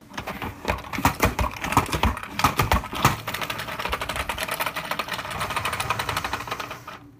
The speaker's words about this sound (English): That mystery sound that you just heard was the sound of my salad spinner